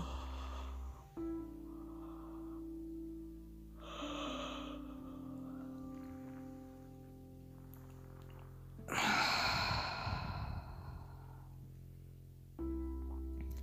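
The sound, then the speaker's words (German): A loud, drawn-out breathy yawn swells and fades near the middle, preceded by a couple of softer exhalations, all over a low sustained musical drone. “Gähnen ist auch ein Zeichen von Entspannung, Ruhe, richtig gähnen.”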